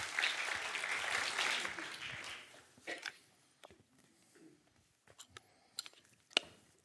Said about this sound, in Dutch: Een applaus alsjeblieft.